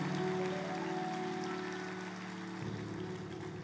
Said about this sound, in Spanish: Dale un fuerte aplauso al Señor antes de sentarte.